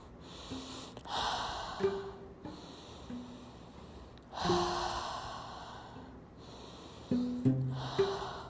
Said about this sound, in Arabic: عشان اقول لكم انه ببساطة خلونا نغمض عيوننا الآن أنا وأنتو وناخذ ثلاثة أنفاس عميقة